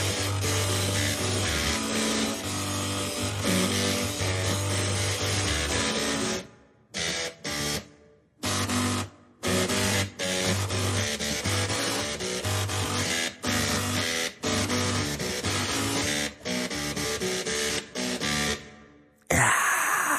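A pop tune played entirely by buzzing, whirring printers and floppy drives, with mechanical tones stepping through a melody and bassline, loud and close, broken by a few brief stop-start gaps.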